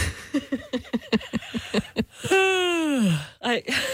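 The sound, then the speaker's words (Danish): A person lets out a long, voiced yawn whose pitch slides steadily downward, fairly loud, right after a burst of quick talking, with a short breathy sound following. “Bliver du på nogen måde smittet af gabet?”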